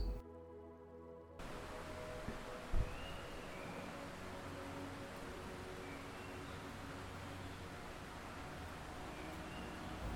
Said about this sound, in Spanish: Respira y permite que el sonido del agua envuelva tus sentidos, relajándote y calmándote. Visualiza el río mientras escuchas sus sonidos.